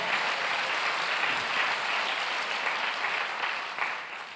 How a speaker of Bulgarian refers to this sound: О, ако искаш да ръкопляскаш, ръкопляскай, като че наистина го вярваш.